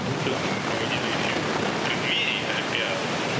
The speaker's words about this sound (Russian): Там говорят, что он микрофон шумит. Это ноутбук что шумит. Этот. Нет, вентилятор по-любому.